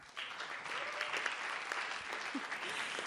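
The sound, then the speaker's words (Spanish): Sustained audience applause at a concert fills the space, a dense wash of many hands clapping steadily at moderate volume, with faint crowd murmur mixed in throughout. “Agradecemos en eh, los créditos de este programa, Intersecciones, en eh, la sonorización e iluminación, con un aplauso muy especial, haciendo el trabajo de siete personas solamente para este concierto,”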